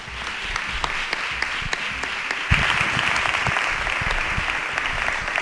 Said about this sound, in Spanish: Y vamos a saludarlo con el primer aplauso de la noche, ¿no?